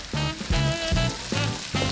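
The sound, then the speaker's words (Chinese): Huoxing Xiaochu Sichuan-style chili oil, one large spoonful added to a wok over medium heat while making mapo tofu, sizzles with a steady, bright crackling hiss throughout, while a tonal pulsing pattern repeats roughly every half second beneath it. No one speaks. “先加一大匙红油进锅”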